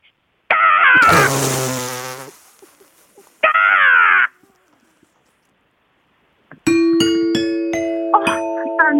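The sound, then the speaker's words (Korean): A person imitates an angry, attacking crow, voicing two loud, raspy caws separated by a short pause, followed after a gap by a steady ringing tone broken by sharp clicks. “성난 까마귀래요. 성난 까마귀. 왜냐면 내가 땡을 못 쳤어요.”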